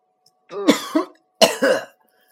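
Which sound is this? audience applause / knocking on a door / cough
cough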